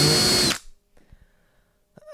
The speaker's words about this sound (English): That's a nice drill, though,